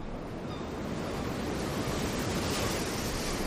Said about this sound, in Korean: 아빠와 나는 오랜만에 나란히 앉아 바다를 보았다. 오랜만에 바다는 푸르렀고 출렁이는 파도는 경쾌했다.